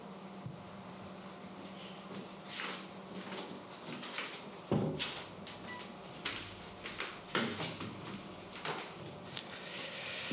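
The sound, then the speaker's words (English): A door is opened to fetch keys kept behind it, with a string of soft clunks, knocks and rattling clicks spread over several seconds, one sharper thud midway and no one talking. “Give me a sec because the keys are behind the door.”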